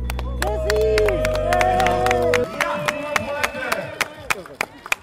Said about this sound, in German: Also euer Beifall bringt garantiert auf eine sehr gute Zeit unseren Christopher Linke.